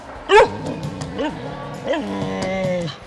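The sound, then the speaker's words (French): A dog lets out one sharp, loud bark, followed by a few shorter yelps and a drawn-out whining howl, with nothing else in the background. “Têtu comme une mule, ce chien.”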